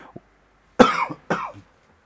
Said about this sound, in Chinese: 哎呀，竟然咳嗽了！原汁原味啊，继续继续读。